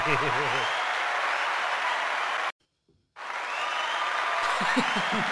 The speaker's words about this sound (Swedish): De där applåderna är helt magiska varje gång. Eller hur? Man blir så glad, man blir pepp ju.